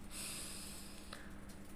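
A long, deep inhale drawn in steadily through the nose for about a second during a box breathing exercise, airy, cutting off abruptly with a brief quiet pause after; no talking.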